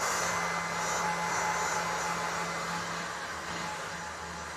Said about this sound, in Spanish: Eh, entonces, eh, sí, claro, me acompaña mi secador a todos los sitios a los que voy.